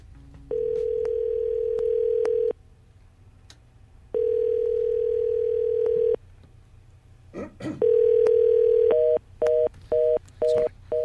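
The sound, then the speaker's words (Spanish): A steady telephone ringback tone from an unanswered call to an overloaded coronavirus symptoms number sounds in long two-second pulses separated by pauses, followed by a click and then a quicker series of short beeping tones, clear with no talking. “De hecho, nosotros marcamos de varios teléfonos distintos, más de 25 veces, y siempre obtuvimos esta respuesta.”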